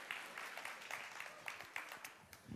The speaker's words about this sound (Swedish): Nu ska ni få en stor applåd med både händerna och fötterna.